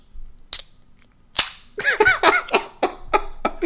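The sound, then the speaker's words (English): Two sharp, close metallic pops, the second trailing a short fizzy hiss, as a can of beer is cracked open, followed by a quick run of squeaky, chattering bursts. “I gotta crack one open for my dog Tanahashi.”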